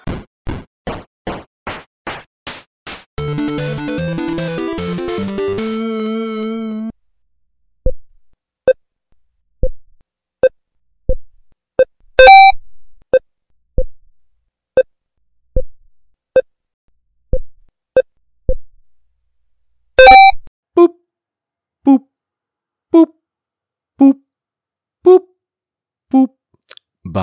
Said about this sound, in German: Bei diesem Sound denken viele Gamer an eins, nämlich Pong.